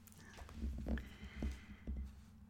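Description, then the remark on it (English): A paper page is turned with a few soft, brief rustles spread over a couple of seconds, quiet against a steady low electrical hum. No one speaks. “Hear me turning the page.”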